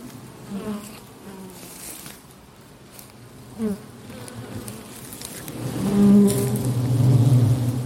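Honeybees buzzing at an apiary, a dense, steady hum of many insects with individual bees zipping past, the drone swelling louder toward the end.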